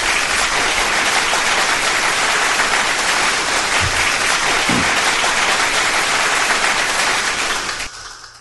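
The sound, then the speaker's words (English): A steady wash of crowd applause, played as a sound effect to applaud a DJ, dense and loud, sustained for several seconds before cutting off abruptly near the end. “So let's give him a big round of applause.”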